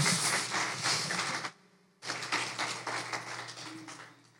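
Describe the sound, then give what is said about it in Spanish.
A crowd claps loudly and steadily, a dense wash of many hands, breaks off for a brief half-second lull, then resumes with the same full, sustained applause that slowly tapers. The audience stands to give the applause to the Lord Jesus Christ at a pastor's church service. “Vamos a pararnos y denle un aplauso fuerte al Señor Jesucristo.”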